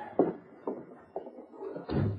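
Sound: door being shut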